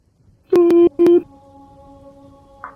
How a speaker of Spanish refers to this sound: Trato de hacer que reaccione el teléfono y apenas reacciona este, le empiezo a marcar. Le empiezo a llamar.